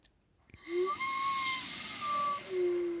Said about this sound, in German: Die andere Technik war, ich habe unten diesen Blockflötenkopf mit der Hand verschlossen und über, den, äh, über das Mundstück eingeatmet. Dann entstehen diese äh, säuselnden Obertonpfeifgeräusche.